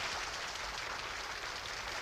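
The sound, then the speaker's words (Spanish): A large audience bursts into sustained applause after a Shostakovich symphony conducted by Richard Kroll, a dense, steady wash of clapping that stays loud and even throughout with no voices standing out. “Richard Kroll sintió que caía en un vacío inmenso mientras estallaba una gran ovación.”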